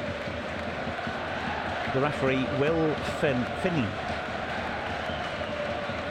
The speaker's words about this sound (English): The crowd getting a little bit fractious.